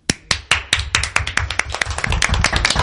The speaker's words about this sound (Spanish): Un homenaje a todos ellos y un aplauso desde aquí de Café con Guaya.